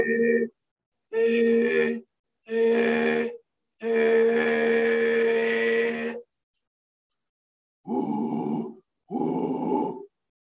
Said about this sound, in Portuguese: Exemplo, um drive de quebra de fluxo do ar.